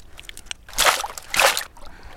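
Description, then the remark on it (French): An adult size-3 pocket oyster with a fairly light-coloured shell is rinsed in water: two broad, splashy sloshing bursts about half a second apart, with a few faint trickles and drips around them and no voices. “Je la rince un petit peu.”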